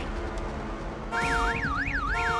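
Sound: car alarm going off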